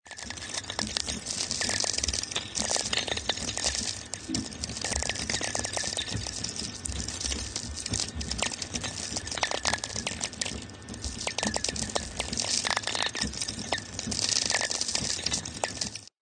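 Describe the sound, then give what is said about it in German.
Dense crackling and popping static from lightning received on a VLF radio, a continuous stream of sharp clicks and pops over a steady hiss, loud, with no voices. “Das sind die Geräusche, wenn es blitzt, wenn ein Gewitter in der Nähe ist.”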